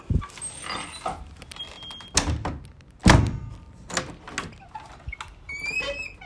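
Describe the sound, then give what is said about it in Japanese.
The door of a parlor (reception room) in a house is opened and shut, with a series of sharp thunks and clunks from the handle and latch, the loudest thud in the middle, then a faint creak at the end. “そして応接間があるんですけど応接間のドアの音”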